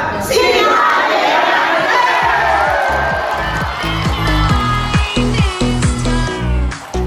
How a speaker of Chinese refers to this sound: 这群嘻哈爷奶博得在场一万名小巨蛋观众最热情的掌声。